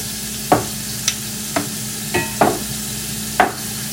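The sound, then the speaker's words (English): An egg fries in a ring with a steady, even sizzle, broken by about six sharp clicks and taps spaced irregularly across the few seconds. No one speaks. “So now that my egg is in its ring, I'm going to season it with a little bit of salt and pepper, cracked pepper, Little pink sea salt,”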